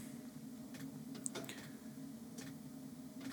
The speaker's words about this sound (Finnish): Maston nuo fallit, mikä on kiinni siinä, niin vähän, vähän pitää ääntä tossa ja, ja tuo lämmittimeen bensapumppukin tuossa tikittää mukavasti, niin mikäs tässä?